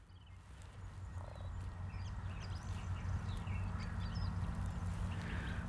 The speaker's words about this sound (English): Well, the birds seem to be saying that spring is on the way, but I have to say that the weather and I are in a bit of an anticyclonic gloom.